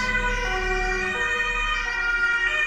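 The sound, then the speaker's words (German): Loud wailing sirens from three emergency vehicles blare as they pass through a traffic-calmed zone, their steady harmonic tones sliding slightly in pitch, with a low rumble of traffic underneath. “Drei Wagen. Das wird richtig, das ist ich noch schätze, lauter als der Keilriemen.”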